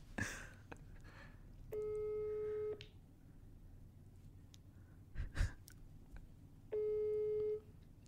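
Two long, steady ringback tones from an outgoing call on a mobile phone to the most famous contact in it, each lasting about a second with a pause of several seconds between them. Soft breathing and small rustles fill the gap; no one speaks.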